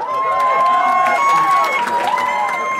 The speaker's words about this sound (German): Ausgelassener Jubel im Hotel Bern.